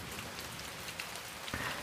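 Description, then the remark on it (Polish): Steady rain falls in a dense, even hiss, with scattered droplets pattering on a surface and one slightly heavier splash near the end. No voices are present. “Deszcz padał nieprzerwanie przez pierwsze dwa tygodnie września.”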